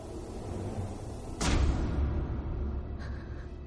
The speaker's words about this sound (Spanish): Se cierra una puerta automática.